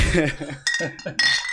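Two bright glass clinks about half a second apart in a toast, each leaving a short ringing tone, with a murmur of voices underneath at the start.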